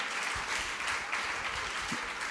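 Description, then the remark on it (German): An audience claps steadily throughout in applause for TV talk host Bettina Böttinger, a dense, even wash of many hands with no pauses, moderately loud, with a few low thumps mixed in. “Einmal bitte einen Applaus für Bettina Böttinger.”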